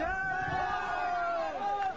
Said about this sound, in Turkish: Önce sevinç çığlıkları.